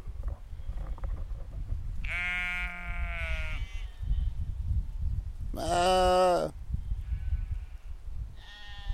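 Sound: sheep bleating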